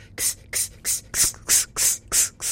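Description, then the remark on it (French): A voice imitates a cicada's hiss with seven short, sharp bursts in a steady, quick rhythm, each one bright and breathy and fairly loud, with no talking, made as a vocal exercise with hands on the sides of the waist near the floating ribs. “Et on va faire simplement la cigale.”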